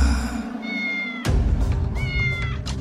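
A cat meows twice, fairly loud, with drawn-out, wavering cries separated by a short pause, over a steady low background rumble.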